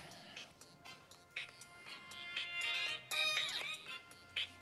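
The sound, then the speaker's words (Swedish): A phone rings with a bright, warbling electronic ringtone, its tones repeating and sweeping for several seconds, steady with no one speaking. “Och nu ringer det här, ett ögonblick.”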